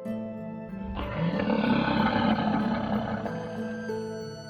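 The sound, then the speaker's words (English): A big cat lets out a deep, rumbling roar that swells after a low growl and sustains loudly for several seconds, alone with no talking. “Looking for a big cat that isn't the generic lion or tiger?”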